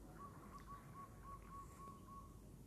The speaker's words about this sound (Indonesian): ini tuh di taman guys berisik burung gak sih